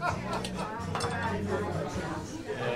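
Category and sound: household object, glasses clinking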